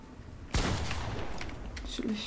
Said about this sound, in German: vorne sind richtig viele Schüsse. Ja, ich sehe es.